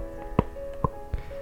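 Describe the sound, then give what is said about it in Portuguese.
Two or three short, dull clicks of a once-dislocated jaw joint cracking, spaced irregularly over a faint steady hum, with no talking. “Esse é o barulho da minha mandíbula escutando, estralando.”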